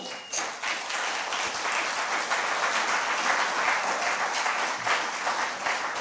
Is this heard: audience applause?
yes